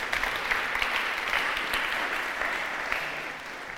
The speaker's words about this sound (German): Ähm, ja, ihr könnt ihm mal einen Applaus geben.